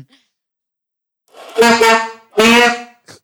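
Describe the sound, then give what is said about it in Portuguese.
Two loud, blaring saxophone notes from a beginner, one after the other with a brief gap, each a harsh, wavering honk with a slightly rough, breathy start. “Eu vou, vou tentar assoprar, mas eu tenho asma, eu acho que não vou conseguir.”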